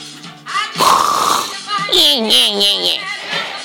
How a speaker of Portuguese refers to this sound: Olha como ele, olha como ele ronca, pessoal.